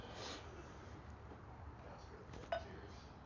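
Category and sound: household object, glasses clinking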